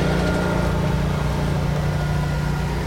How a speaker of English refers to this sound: I thought they were all done. They mowed while I was sitting waiting for you, and I thought that all the uh, noise would be gone.